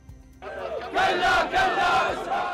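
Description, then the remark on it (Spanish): Thousands of people at the funeral procession for General Soleimani in Baghdad shout 'death to the United States' in unison, the chant swelling into loud, rhythmic bursts of many voices. A low murmur of voices comes first, then a powerful massed cry. “Al grito de muerte a Estados Unidos, miles de personas han despedido en Bagdad al general Soleimani y a su lugarteniente en Irak.”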